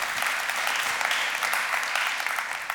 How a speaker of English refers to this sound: You, you ought to clap for that. That's really good.